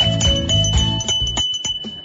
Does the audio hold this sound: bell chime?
yes